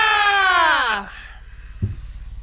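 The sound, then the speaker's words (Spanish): A loud, high-pitched sneeze with a drawn-out voiced rise that drops off abruptly after about a second, followed by quiet and a soft low thump. “Ah, salud.”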